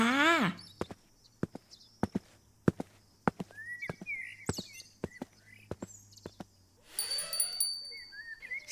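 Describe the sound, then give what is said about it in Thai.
Footsteps clop steadily across the floor as a girl takes some food and leaves, while birds chirp in the background; then the bell at the shop's front door rings out near the end, its bright tones lingering and fading. “เสียงกระดิ่งหน้าร้านส่งสัญญาณขึ้นอีกครั้ง”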